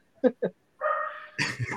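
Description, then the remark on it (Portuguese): A neighbor's dog lets out two quick, sharp barks in the early evening, then a drawn-out whining yelp, followed by a rougher burst of barking, loud against an otherwise quiet background. “O cachorro do vizinho escolheu latir exatamente agora, muito bom.”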